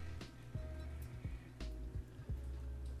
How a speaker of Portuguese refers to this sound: e passou uma moto